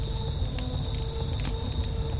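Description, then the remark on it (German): A fire burns steadily with a low rumbling roar as scraps of a photo curl up in it, and scattered soft crackles and pops come through. No one speaks. “Conny sieht zu, wie die Schnipsel sich im Feuer aufrollen.”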